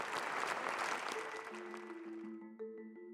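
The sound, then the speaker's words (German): A large crowd gives a long, dense standing ovation for Joachim Gauck, the outgoing 11th German Federal President, which gradually thins out as steady sustained musical tones rise up and take over toward the end. “Standing Ovations für Joachim Gauck, den abtretenden 11. Bundespräsidenten.”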